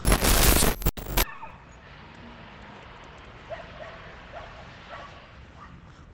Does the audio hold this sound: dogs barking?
yes